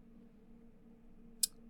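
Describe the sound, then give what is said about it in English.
A single crisp computer mouse click, short and sharp, as someone clicks on a study, over a quiet steady electrical hum, with no one speaking. “clicking on the study for a moment, uh, interaction between circadian rhythms and stress”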